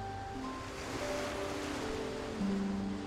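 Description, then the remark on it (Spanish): A steady wash of ocean surf rolls continuously, blended with soft, sustained musical tones that shift slowly in pitch. No one speaks, and the sound stays fairly even throughout. “Ninguna es idéntica al resto, pero el conjunto de todas ellas suena armonioso y rítmico, casi como si todas las olas estuvieran conectadas, a través de una melodía que comienzas a distinguir a medida que prestas más y más atención.”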